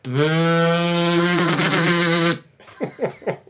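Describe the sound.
A person makes a loud, steady buzzing hum with their voice for about two seconds, imitating an old Nokia 3310 mobile phone vibrating, followed by a few short vocal sounds.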